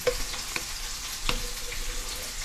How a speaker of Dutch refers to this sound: Ik bak nu dus... Eh, ik draai nu het vlees om. En dan ben ik klaar mee.